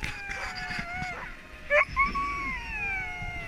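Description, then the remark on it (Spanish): A pack of sled dogs howling and whining together at the place about a kilometre from the camp where all the dogs are kept, overlapping long wavering cries at moderate volume, with a couple of sharper yelps breaking through midway. “Eh, nos llevaron en un monovolumen a un lugar que está más o menos a un kilómetro del, campamento, que es donde tienen a todos los perros ahí.”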